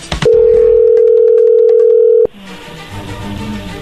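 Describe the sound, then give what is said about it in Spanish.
A loud, steady telephone dial tone as someone dials a phone, holding one low, even pitch for about two seconds, then cutting off abruptly into a softer, rough hiss of line noise. “Ahí está marcando, no hagan ruido.”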